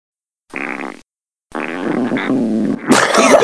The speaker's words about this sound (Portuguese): peidou, bicho. Que isso, mano? Foi, caralho, o cara cagou na calça, mano.